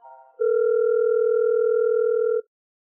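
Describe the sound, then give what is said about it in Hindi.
A telephone call sound as someone phones an art gallery: a brief soft tone, then a loud, steady electronic ring tone holding for about two seconds before cutting off into silence. No one speaks. “उससे रहा न गया वापस उसने आर्ट गैलरी फोन किया”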